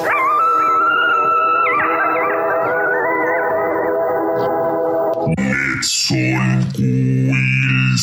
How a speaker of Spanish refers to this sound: se escuchó el aullido de un coyote proveniente de esa fiera.